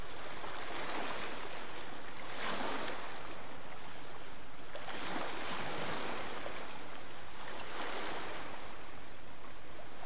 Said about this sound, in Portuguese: Pela primeira vez em muito tempo, estou sentado em uma cadeira tomando um sol, ouvindo o mar completamente relaxado.